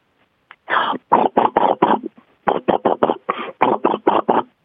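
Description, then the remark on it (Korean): A voice mimics an MRI scanner with a string of rapid, rhythmic, buzzing vocal pulses, fairly loud, broken into two runs by a brief pause. “그러니까 뭔지는 알겠는데 정확히 정확히 MRI라고 안 하면 이게 무슨 소리인지 몰라요.”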